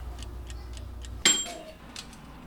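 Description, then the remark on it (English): A toaster oven timer, with crickets and katydids on tinfoil cooking inside, ticks steadily, about two ticks per second, then a sharp metallic clunk with a bright ringing ding cuts in. The ticking continues faintly afterward. “I squirm a bit in anticipation as he puts them into the toaster oven.”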